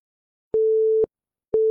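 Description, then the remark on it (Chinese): A steady mid-pitched telephone busy tone, heard after a call is hung up mid-sentence, pulses on and off in even half-second beeps separated by short silences, clean and alone with no voices. “话没说完就被挂断。”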